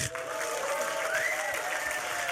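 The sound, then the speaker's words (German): Steady audience applause for someone's 18th birthday fills the whole stretch, a dense wash of clapping at even loudness, with a few voices cheering and a rising whistle-like tone cutting through midway. “Es wäre so ein Applaus für dich.”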